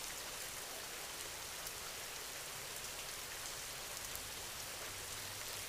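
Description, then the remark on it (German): Steady rain falls continuously, a dense, even hiss of drops with faint scattered patters on a surface, soft and unbroken throughout with no voices. “Dein Körper fühlt sich so richtig entspannt an, je mehr du dem Regen zuhörst.”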